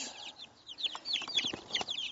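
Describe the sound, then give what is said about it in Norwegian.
Several hens cluck and chatter over one another in a hen yard where young chickens are kept in a rabbit cage, a busy stream of short, overlapping calls at moderate volume with no one talking. “Det er jo det nå, eh, nå når de går her i dette kaninburet, eh, disse kyllingene, inne i, i hønsegården, så får jo de andre hønsene sjansen til å, å bli kjent med dem gjennom nettingen.”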